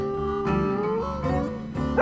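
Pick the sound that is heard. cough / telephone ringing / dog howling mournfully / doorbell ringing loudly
dog howling mournfully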